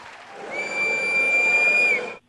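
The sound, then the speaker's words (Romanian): A single sustained train whistle, a steady high-pitched tone lasting over a second, sounding above a bed of murmuring background noise before cutting off abruptly. “Asta este un tren. Un tren, exact ca un tren este, bravo.”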